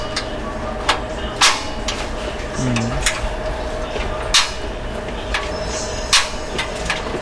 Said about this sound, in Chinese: 有一些它的声音不错， 你说按就是那种按钮的回馈声的， 哦，键盘的那种，